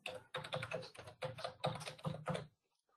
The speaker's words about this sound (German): gebe entsprechend mein Passwort ein, tippe es nochmal langsam.